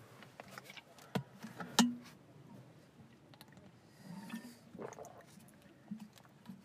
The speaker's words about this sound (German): Das Ist ja auch so ein schönes Geräusch, dich einfach trinken zu hören, ne?